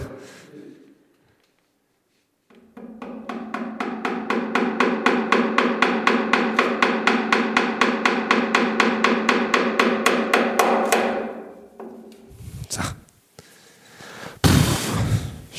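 Rapid, steady hammering of tiny nails into a barrel: dozens of quick, evenly spaced metallic taps for about eight seconds, loud, followed by a few scattered knocks and clatter.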